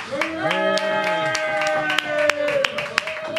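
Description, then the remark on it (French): A small live audience at a Radio Campus Clermont-Ferrand show claps weakly for itself, a sparse, uneven scatter of sharp individual claps rather than full applause, heard over a steady, sustained tonal hum of voices. “il y a un petit manque, il y un petit manque d'ego parce qu'ils s'applaudissent plus mollement que pour une personne.”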